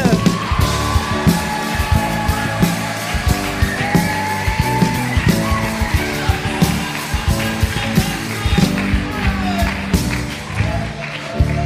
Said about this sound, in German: Einen ganz, ganz herzlichen Applaus für unseren Missionar